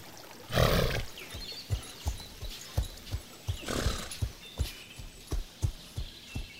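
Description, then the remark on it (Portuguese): Steady clip-clop of a docile purebred horse's hooves at a relaxed walk during a short mid-afternoon ride around a farm in the Serra Gaúcha, Brazil, with a couple of louder snorting or breathy bursts from the horse early and midway. No one speaks. “Montamos em um dos cavalos para uma breve cavalgada pelas redondezas.”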